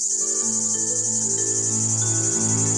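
Cicadas chirring in a steady, loud, high-pitched buzz that runs unbroken throughout, layered over low sustained musical tones with no one speaking.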